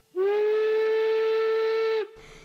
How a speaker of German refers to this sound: Also es gibt auch noch die Zughupe